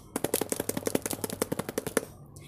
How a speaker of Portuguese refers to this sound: Que rufem os tambores!